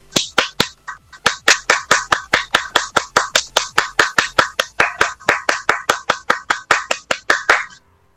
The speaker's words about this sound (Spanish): ¡Aplausos, por favor!